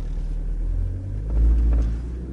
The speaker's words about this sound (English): It just appeared that it did that because I was moving forward and back with the car. So let's accelerate again